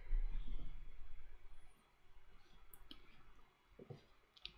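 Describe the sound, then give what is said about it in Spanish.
A few quiet, sharp clicks from a computer mouse as a product name is entered and search is clicked on AliExpress, spaced irregularly against a soft background hum with no one talking. “Ponemos el nombre, le damos clic en buscar.”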